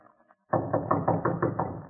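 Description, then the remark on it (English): After a brief quiet moment, a Scotland Yard inspector knocks on a door: a muffled, steady series of about six or seven firm knocks, evenly spaced. “He will now pause for a moment to regain his breath will then assume his most authoritative air and knock.”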